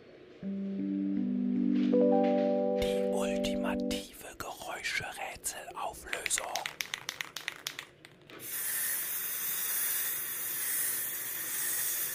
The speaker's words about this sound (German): Ach so, so ein Ding, ja, die Spraydose. Eine Spraydose. Ja. da war ja, ja, wohl ziemlich eindeutig ja, zu erkennen.